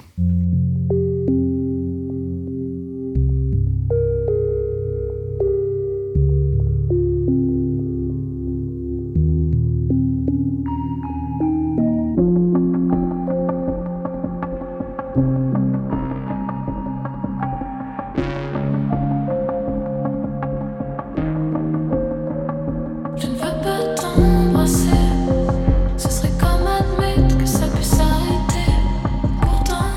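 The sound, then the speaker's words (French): A song's instrumental opening, played as a musical break in the programme Parlons Transition: soft sustained keyboard chords build steadily, then fuller accompaniment and percussion come in, growing louder and brighter toward the end. No voices yet. “mais avant on va faire une deuxième pause musicale et écoutez”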